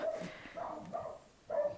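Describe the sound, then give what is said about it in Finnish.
A hunting dachshund barks in a forest, four clear, fairly strong yaps in quick succession with a short pause before the last one. No one talks. “No nyt se no alkaa mm. Niin. haukkuu.”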